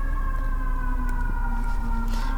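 A fire truck siren wails continuously, its steady tone drifting slightly lower in pitch over a couple of seconds, loud and sustained with a low rumble underneath and no one talking.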